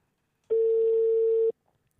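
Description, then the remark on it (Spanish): One steady telephone ringback tone as a television show calls don César Bocanegra, a loud mid-pitched hum lasting about a second, starting and stopping abruptly, with near silence before and after. “Estamos llamando a don César.”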